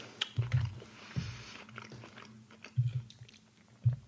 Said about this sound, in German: Naja, aber halt man hört halt nicht gerne, man hört halt nicht gerne Podcast irgendwie, wo jemand kaut oder jemand isst oder so. Also gehst du gerade mit gutem Beispiel voran.